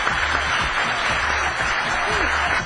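Sustained applause welcoming a guest to a radio program, a dense, steady wash of clapping that stays loud for the whole stretch without breaks.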